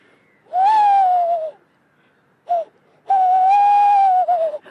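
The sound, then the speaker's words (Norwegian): A tawny owl call imitated by blowing hard through cupped hands to lure owls: a long, breathy hoot, a brief pause and a short note, then a longer wavering hoot. Fairly loud, with no talking. “Han blåser i hendene sine.”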